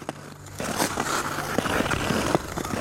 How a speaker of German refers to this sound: Der Herzschlag im Takt mit dem Geräusch der Schlittschuhe, die bei jedem Schritt den kalten, harten Grund einritzen.